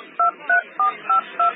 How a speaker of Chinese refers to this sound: 嫂子把老陆的手机放在他手边的桌上，然后掏出他自己的手机开始拨号。